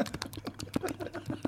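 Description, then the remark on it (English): Someone makes rapid, wet smacking and clicking noises with their mouth, imitating sloppy kissing, fairly quiet, in an irregular flurry of smacks with no talking. “That's the sound of Kendo Nagasaki getting off a, a lassie in a cat house”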